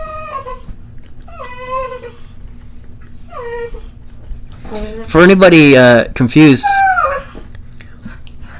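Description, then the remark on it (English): An old female dog with a brain injury whimpers in a series of high, wavering whines, then lets out a louder, drawn-out howl; a person speaks briefly in between. “our dogs stupid? She's not stupid.”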